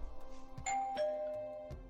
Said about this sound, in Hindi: मैं उनके घर गया और घंटी बजाई